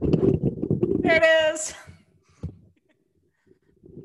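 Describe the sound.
Loud fumbling and rubbing of a microphone being picked up and handled, with dense low rumbles and a brief squeaky scrape, followed by a voice speaking briefly.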